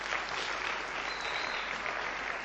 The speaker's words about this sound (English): let's give them all a clap and thank them all. fantastic.